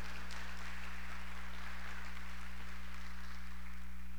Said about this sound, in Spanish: Si se lo va a dar al Señor, déselo fuerte ese aplauso.